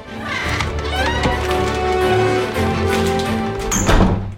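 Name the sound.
door slamming shut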